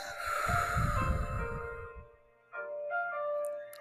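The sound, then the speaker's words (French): A long, slow breath out after taking a deep breath, a soft breathy rush lasting about two seconds, fading into quiet while gentle sustained tones play underneath and carry on afterward. “On expire.”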